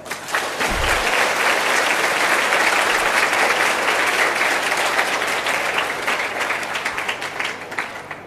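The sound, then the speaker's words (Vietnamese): Sustained applause from a large crowd of young people, given as a pledge of commitment: a dense, steady wash of clapping that holds strong for about eight seconds before thinning slightly at the end, with no speech over it. “nếu các bạn trẻ thấy việc này á, là cần thiết phải làm thì hãy dâng cao tràng vỗ tay để cam kết”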